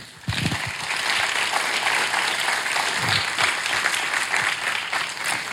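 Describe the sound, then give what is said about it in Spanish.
An audience applauds for the King, Christ, dense clapping starting abruptly and holding at a loud, even level for several seconds, with a few low thumps beneath the bright, crackling texture. “Un aplauso para el Rey.”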